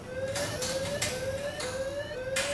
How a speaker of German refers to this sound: Au même moment, une alarme retentit.